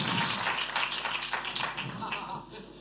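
A crowd claps steadily, a dense crackling wash of many hands at fairly strong volume that holds for a few seconds and thins slightly toward the end.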